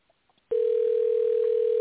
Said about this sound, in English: I mean the phone is coming through. That's what I mean. Yeah, I can hear it. Yes. Okay. No, is not picking up, but let's hope that she's okay.